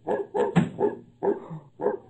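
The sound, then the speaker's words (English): A dog aboard a ship barks five times in quick succession, short excited woofs spaced evenly over a couple of seconds, moderately loud with no one talking. “Oh, the, the, the dog.”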